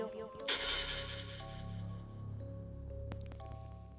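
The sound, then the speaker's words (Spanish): A glass wine bottle shatters loudly and suddenly as it is struck against a doll, its bright, crackling debris ringing on for a few seconds over a low steady hum, with a sharp clink near the end. “Entonces tomé una botella de vino que tenía abajo de mi cama y empecé a darle con él. A la muñeca, la botella se rompió”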